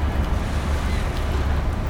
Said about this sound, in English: The electric bow thrusters automated maneuvering devices begin to move the ship away from the port side.